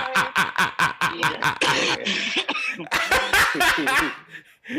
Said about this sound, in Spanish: y … tosiendo para efectos de, realismo